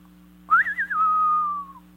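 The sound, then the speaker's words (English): A person whistles a single clear phrase of a western showdown tune, rising with a quick wavering flourish and then holding a long, steady falling note, fairly loud over a faint low hum. “There's this showdown that's going down. Whew, I didn't know if I'd had the whistle this morning.”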